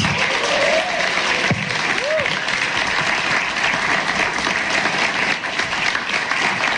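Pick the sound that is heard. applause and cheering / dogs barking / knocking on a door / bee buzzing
applause and cheering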